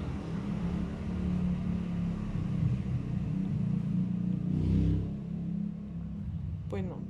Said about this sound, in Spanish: Pues, ahí disculpen en el fondo que se escuche un poquito a veces el ruido de la calle.